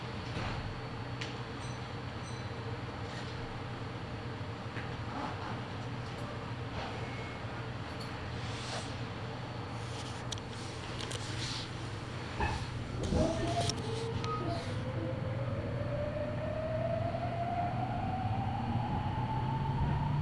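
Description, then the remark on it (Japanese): A Meitetsu express train bound for Nagoya and Iwakura departs a station, next stopping at Noma; its steady low rumble is joined by an electric motor whine that climbs in pitch as it accelerates, with faint clicks and rattles. “名古屋岩倉方面急行新車駅発車で次は野間に停まります。”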